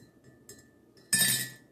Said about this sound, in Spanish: Pero pues ahí para quienes eran fanáticos del café, no va a haber, no va, a haber, bueno, miren, va a haber el sonido de la cucharita porque aquí está la taza.